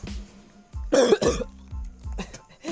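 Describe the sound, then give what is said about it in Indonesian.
Two harsh, rasping coughs close together, loud, followed by lower throaty rumbles and throat clearing, a rough chesty smoker's cough with no talking. “ini ini batuk batuk rokok ya batuk rokok bukan bukan batuk ini bukan bukan anjing keselak dosa dajal tuh, ini aman ya aman dahak nih da, dahak bukan bukan ongkek bukan”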